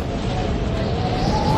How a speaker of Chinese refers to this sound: 牛魔王呢，被打到后退了几步，接着发出巨大的怒吼声音哦，喷出的强风把 QQ 侠吹到了山边。